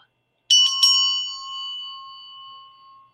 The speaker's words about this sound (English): And um, I found my well, not my gift. I lost it, but I found my bell too.